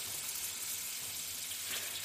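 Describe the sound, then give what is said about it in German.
Köfte meatballs sizzle in a frying pan with a steady, dense crackling hiss that holds even throughout, moderately loud, with no one speaking. “Die brutzelt munter vor sich hin.”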